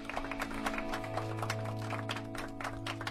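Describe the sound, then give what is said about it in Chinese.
A quick burst of hand clapping, sharp irregular claps over a steady low hum, fairly quiet and continuing for a few seconds with no one speaking. “哎，这这给你一个棒棒哒，鼓鼓掌。”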